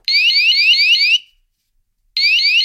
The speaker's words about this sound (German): Ihr merkt, dann macht er nämlich so ein Alarmsignal einfach.